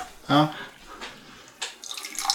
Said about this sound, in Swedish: Tre fyror du har hällt upp misstänker jag. Eh, ja, tre fyror plus eh, tre sexor.